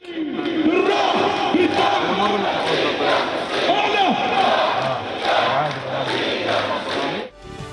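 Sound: protest crowd chanting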